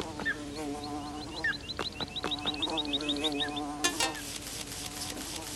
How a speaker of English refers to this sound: This is one instance in which I'm glad this is not a binaural game. Yeah. Because wasps creep me out anyway. in a game.